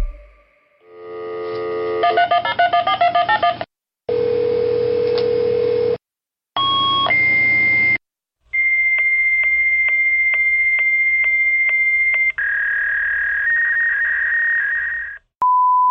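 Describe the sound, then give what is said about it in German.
A fax machine dials with a quick run of beeps, then a series of shrill handshake tones, warbling squeals and long steady electronic whines, loud and alone, ending in a short high beep. “Bremer Landesdatenschutzbeauftragte stuft Telefax als unsicher ein.”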